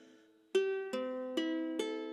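A newly bought ukulele, played for the first time, is strummed four times in a steady, unhurried rhythm, each bright chord ringing out clearly before the next downstroke, with no one speaking.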